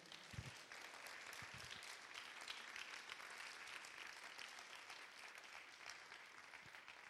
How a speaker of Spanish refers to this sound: ¿Alguien dice amén? ¿Alguien le da un aplauso a la palabra del Señor?